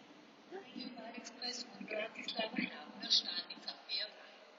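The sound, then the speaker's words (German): A train station loudspeaker announcement in Vienna echoes, a reverberant amplified voice speaking in short phrases, announcing that a train is arriving and terminates here, over a low hum of station background noise. “Haben ihr das gehört? Fährt ein und endet hier.”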